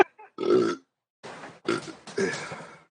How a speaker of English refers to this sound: You can keep burping. That's also content. Uh, Just keep burping. Burp your ABCs for me while I'm gone.